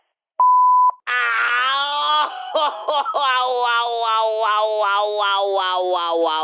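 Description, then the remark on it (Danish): A single short, steady answering machine beep on the Nationen phone line sounds clearly, followed right away by a loud, drawn-out wailing, cat-like yowl that wavers in pitch for several seconds. “Læg venligst din holdning efter bippet.”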